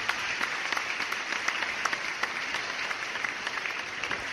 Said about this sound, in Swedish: Välkommen Pierre Bonfrey. Applåder.